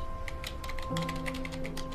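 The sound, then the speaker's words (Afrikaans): Rapid, irregular clicking of keys on a computer keyboard, steady for two seconds, with a faint steady hum underneath and no voices. Someone is quickly finishing typing something in their room. “Ek ek tik net gou iets hier in die kamer klaar.”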